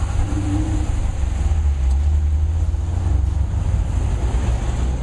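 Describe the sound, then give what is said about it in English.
A Dodge 6.4 liter (392 cubic inch) Hemi V8 engine in a car on a test drive at Sears Point (Infineon Raceway) runs steadily, with a deep, continuous low rumble and a slight throaty pulse, holding at a roughly even idle or cruise with no talking. “Dodge just kicked it up a notch by dropping in a 6.4 liter Hemi V8, and that's bigger than the 6.1 liter that used to be in this car.”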